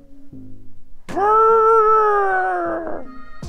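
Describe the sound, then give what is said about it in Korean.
A person imitates a dog's howl as a 'puppy lullaby': one loud, drawn-out, tonal 'awoo' lasting about two seconds, sliding gently in pitch, between quieter low murmurs and a brief sharp noise at the end. “제노멍멍이 자장가 좀 불러와.”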